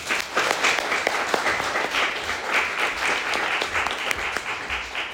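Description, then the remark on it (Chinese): Sustained audience applause thanking a consultant after a talk, a dense wash of many hands clapping steadily at an even, fairly loud level throughout, with no voices standing out. “好，那我们再次用延呃延续热烈的掌声，再次感谢我们的长刚顾问。”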